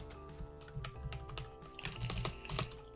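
Rapid, uneven clicking of keys on a computer keyboard while typing an equation, a steady stream of taps with a few louder strikes, with no talking over it.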